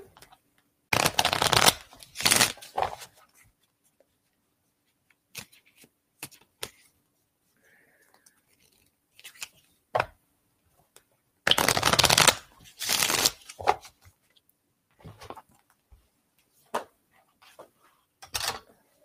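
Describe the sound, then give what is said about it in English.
Cards are shuffled for a card reading in several brisk bursts, each a dense papery riffle, separated by quieter taps and soft handling sounds; no one speaks. “So I'm going to shuffle them”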